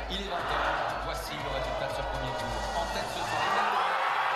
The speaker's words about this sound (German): Jubel im Lager von Macron, also danach.